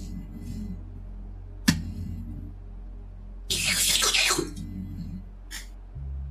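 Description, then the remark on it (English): A wet slurp made by a person, lasting under a second, loud against a quiet background, with a sharp click before it and a brief hiss after. “that a slurp sound you just made? Disgusting.”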